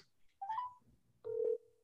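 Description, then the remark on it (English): A call placed from a cell phone rings over its speakerphone: two short electronic tones, the first higher and brief, the second lower and longer, fairly clear with no one talking. “Do you guys hear the ringing?”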